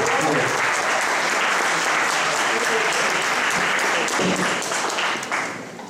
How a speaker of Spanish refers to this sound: con un aplauso grande para escuchar su música